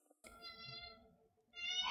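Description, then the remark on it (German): A cat meows loudly and insistently, two drawn-out, strained cries, the second rising sharply as the first fades, with no talking. “okay, meine Katze schreit mich gerade richtig doll an.”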